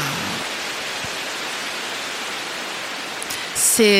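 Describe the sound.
A rain stick being shaken: a steady, dense rush of tiny pattering grains like falling rain, continuous for several seconds, ending with a brief louder shake and a faint voice at the very end.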